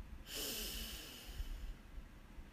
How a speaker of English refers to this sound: So let's take a deep breath in, breathe in